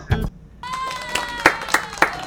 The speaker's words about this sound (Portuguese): peraí, vou soltar uns aplausos aqui, ó.